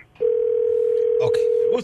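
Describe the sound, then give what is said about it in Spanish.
A single steady electronic telephone ring tone hums over the line for about a second and a half, loud and unbroken, with faint background voices briefly breaking in near the end. “Ok, ya está sonando el teléfono.”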